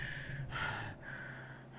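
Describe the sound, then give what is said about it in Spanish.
A voice imitates heavy breathing: two or three loud, airy breaths in quick succession, with a low steady hum underneath and no words spoken. “está como que respirando fuerte, fuerte, ¿eh?”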